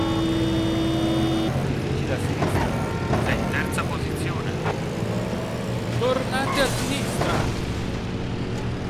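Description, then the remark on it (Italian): Car engines in a racing video game roar continuously and loudly, with a steady droning hum and shifting revving tones, while a man talks excitedly over the game sounds as he drives the Blackbird race car with automatic transmission, slowing down because it does not hold the road well. “qui cerco di andare più piano perché sta macchina non tiene bene la strada vai vai capitano secondo sei in quarta posizione tornante a sinistra”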